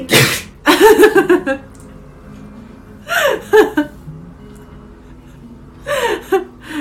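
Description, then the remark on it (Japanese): Three loud, theatrical sneezes spaced a few seconds apart, each a sharp hissing burst followed by a drawn-out voiced wail, a person exaggerating sneezes for comic effect in the style of comedian Kato-chan, with quiet pauses between. “ちょっとあの今今のは加トちゃんでしたっけ加ト加トちゃん風のくしゃみ”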